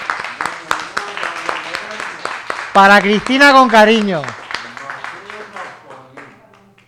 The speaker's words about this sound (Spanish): Y de aquí le mandamos un beso y, y un aplauso. Le damos un aplauso.